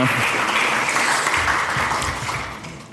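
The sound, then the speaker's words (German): A crowd claps steadily in dense, sustained applause that stays loud throughout before easing slightly at the end, with no talk over it. “Und zwar, yes, geben ihm, ihm noch einen Applaus”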